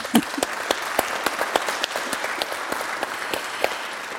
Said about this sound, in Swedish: Så jag tycker, ge er själva en varm applåd.